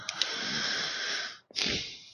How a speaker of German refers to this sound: ja, ich höre dich schon wieder schwer atmen.